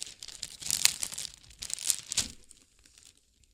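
Gift wrapping paper crinkles and rustles as it is picked up and handled, in a few bursts of crisp crackling over about two seconds before fading to quiet.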